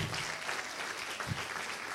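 Worshippers applaud the Lord during a sermon, many hands clapping in a dense, continuous wash of sound with no pauses, holding an even loudness throughout.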